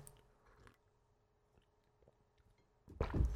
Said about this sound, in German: Ich äh, schlürfe mal kurz am Tee.